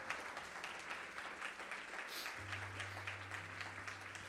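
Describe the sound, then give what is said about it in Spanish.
A crowd applauds steadily for the Lord Jesus, dense clapping throughout, with a low sustained tone entering partway through, like an organ or keyboard chord underneath. “Vamos a dar ese aplauso al Señor Jesús.”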